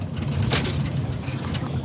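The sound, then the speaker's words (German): The motor of a heavily loaded wooden boat drones steadily throughout as it travels upstream on the Rio Jordan, a low rumbling engine hum with a broad hiss of water and wind layered over it, fairly loud and unbroken. “Iber startet den Motor und steuert das schwer beladene Holzboot flussaufwärts, durch Windungen und Stromschnellen, an Sandbänken und Treibholz vorbei bis am Ufer die ersten Holzhütten auftauchen.”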